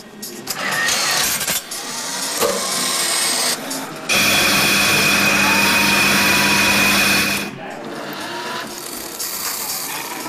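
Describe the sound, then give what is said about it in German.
A coffee machine runs with a loud mechanical whirring and rattling, swelling into a steady, buzzing grind for a few seconds in the middle before settling back to a lighter churn. No one speaks. “Es ist die Kaffeemaschine hier bei FM4.”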